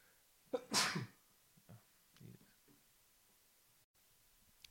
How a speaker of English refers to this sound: Sorry, excuse me. Had a sudden sneeze come up, so I had to stop recording real quick and get that one out of the way.